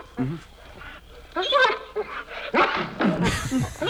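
Several rough, snarling dog growls and barks come in short bursts, loud and close, against a busy, noisy background.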